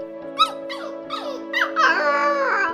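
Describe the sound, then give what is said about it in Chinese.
A black puppy squeaks in a quick run of short, high-pitched yelps, then lets out a longer, wavering whine, all over a steady low hum. “哇，原来是一只黑色的小狗。”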